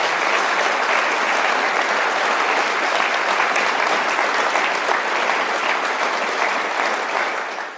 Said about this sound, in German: Applaus, Applaus.